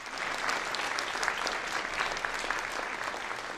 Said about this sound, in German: Dabei müssen seine Finger richtige Zauberkunststücke vollbringen. Und genau das tun sie, und das Publikum tobt.